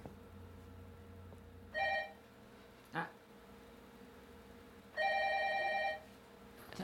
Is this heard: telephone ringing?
yes